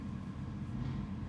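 A garbage truck rumbles past outside, its heavy engine a steady, deep drone that stays fairly loud throughout, with no voices.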